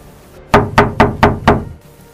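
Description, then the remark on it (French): Five firm, evenly spaced knocks on an old wooden front door, fairly loud, each with a quick resonant thud, followed by quiet. “On venait de frapper à la porte.”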